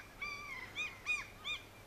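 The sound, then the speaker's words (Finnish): A common gull gives a run of high, nasal, mewing calls, one drawn-out note followed by three shorter rising-and-falling cries spaced evenly apart, over a faint steady background hiss. “Pienikokoinen ja kiltin näköinen on tämän viikon luontoääni kalalokki.”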